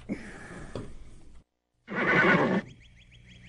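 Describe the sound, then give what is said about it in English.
A horse whinnies loudly in a shrill, quavering burst, preceded by a rougher neigh and a brief silence, then trailing off into faint fluttering tones. “A horse is a horse, of course, of course, and no one can talk to a horse, of course.”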